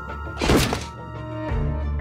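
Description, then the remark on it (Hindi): Police breaking down the door of a flat: one loud, heavy crashing thud with a splintering burst, then a second duller knock, over a steady low tonal drone with no voices. “थोड़ी देर कोशिश करने के बाद जब किसी ने दरवाज़ा नहीं खोला तो पुलिस ने दरवाज़ा तोड़ दिया”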